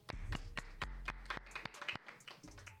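Applause made of sharp, distinct hand claps, roughly ten over three seconds, in a loose, uneven rhythm, like only a few people clapping, with no voices.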